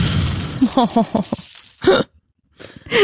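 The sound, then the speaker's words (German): Coins clinking together: a run of bright metallic chinks over a lingering high ring, a brief silence, then another burst of jingling money at the end. “Also entweder das ist die Glocke einer Kuh. Falsch. Oder es ist Geld.”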